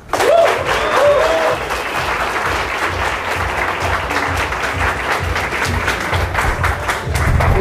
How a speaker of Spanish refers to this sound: un fuerte aplauso